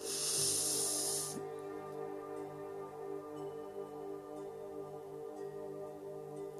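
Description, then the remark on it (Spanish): A deep, breathy inhale, part of a meditation breathing technique, rushes in as a loud hiss for just over a second, then stops, leaving a steady bed of soft humming drone tones. “La técnica es así, apretar, inhalamos Una vez más lo voy a hacer. Inhalo.”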